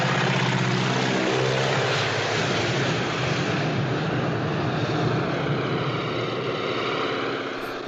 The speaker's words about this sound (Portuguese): Ué, é um avião, não é? Um avião uh, que certo. pode estar a aterrar ou não.